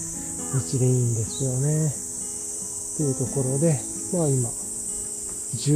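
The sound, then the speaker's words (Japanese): Higurashi evening cicadas in a forest keep up a steady, high-pitched chorus through the whole clip, a continuous shimmering drone in the background on a summer evening around 6:15 pm, while a man riding a bicycle talks in the foreground. “まあこの自然の鳥の声とか、木暮らしの音とかがいいなと思って、まあ、やってたっていう感じ”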